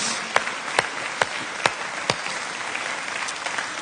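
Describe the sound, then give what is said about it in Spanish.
A crowd of people applauding the mothers at Osana, with dense, steady clapping throughout and a few sharper, louder claps standing out at regular intervals over the first two seconds. “Hoy, una vez más, porque lo merecen, yo quiero que juntos podamos darle un aplauso a estas grandes mujeres de Dios en Osana.”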